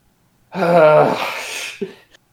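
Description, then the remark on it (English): A single loud sneeze: a rising voiced intake breaks into a harsh, breathy burst, followed by a brief sniff or snort, with no talking. “God bless you.”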